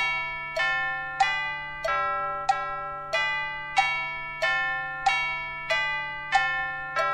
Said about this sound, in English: The clock struck noon.